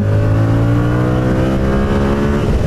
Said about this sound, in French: Vous l'entendez on retrouve euh, le moteur de la MT-07 hein, avec les mêmes caractéristiques puisque c'est exactement les mêmes performances. Donc on a la même sonorité, le même, euh, la même reprise à ah bas régime et tout ça.